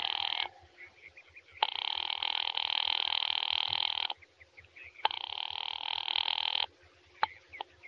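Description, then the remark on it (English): A telephone line rings in long, steady bursts as a call to an office rings, three rings separated by short pauses, loud with a faint low hum beneath. “Ringing Murray Hill 70093.”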